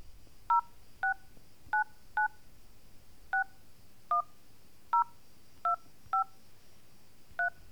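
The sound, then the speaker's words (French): A mobile phone keypad sends out about eleven short dual-tone beeps, pressed at an uneven pace over several seconds, clear against a faint low background hum. “Et si j'apportais un téléphone portable à tes amis tortues Regarde, j'en ai un.”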